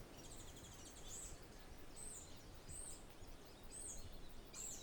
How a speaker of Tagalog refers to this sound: Nature na nature ang dating kapag yung nasa sa bukid ka dahil nakakarinig ka ng iba't ibang uni ng mga ano mga ibon kako which is yun ang gusto ko talaga talagang balikan yan.